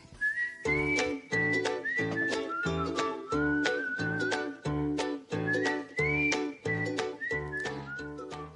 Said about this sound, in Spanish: Qué buen silbido, déjame decirte. Así mismo. Y es un buen silbador, además.